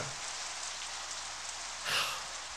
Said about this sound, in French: d'arbre en arbre comme les gouttes qu'on voit rebondir sur les feuilles et se recomposer un peu plus loin, se rejoindre en ruisseau ou se cacher dans un creux pour le bain d'un oiseau.